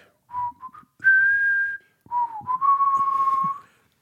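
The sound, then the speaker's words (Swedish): A woman sitting in a car whistles a short melody in a few clear phrases, some notes brief and others sustained, fairly loud with no talking over it. “sitter och visslar på en liten trudelutt som låter så här.”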